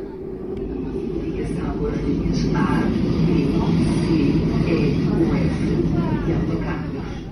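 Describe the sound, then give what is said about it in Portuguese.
A steady, heavy low rumble of a Metro do Porto carriage in motion in Porto fills the whole stretch, with a faint woman's voice heard over it giving an onboard station announcement. “A sua voz ecoa pelas composições do Metro do Porto há 20 anos.”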